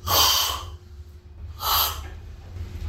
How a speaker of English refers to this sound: I attended a coffee cupping at Kaldi's it's like a wine tasting, but with loud slurping.